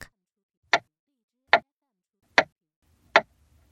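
A clock ticks four times, each sharp tick evenly spaced about a second apart, fairly loud, with near silence between them.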